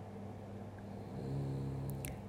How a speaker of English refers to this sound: You can probably hear my dog snoring.